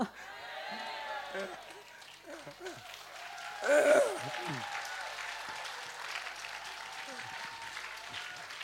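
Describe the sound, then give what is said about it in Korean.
A church audience's applause during a pastor's sermon fills the whole stretch as a dense, steady patter of many hands, swelling briefly with a cheer-like burst midway, while a man's voice speaks intermittently over it. “박수 칠 거 없어요.”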